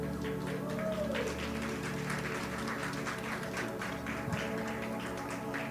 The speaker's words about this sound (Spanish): Vamos a estar de pie y vamos a despedirnos. Un aplauso para esta chamaca hermosa.